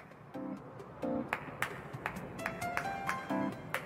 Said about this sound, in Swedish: Jag kan klappa händerna.